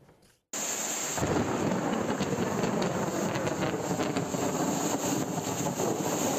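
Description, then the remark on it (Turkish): A heavy rainstorm in Turkey, under a meteorological heavy rain warning, roars in after a brief quiet start, dense and loud throughout, with a deep rumbling undertone like thunder beneath the steady downpour. No one speaks. “Meteoroloji kuvvetli yağmur uyarısı yaptı.”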